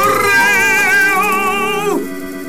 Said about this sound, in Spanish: Pues ya entra en la cortinilla. Ah, ok, ok, ahí va la cortinilla.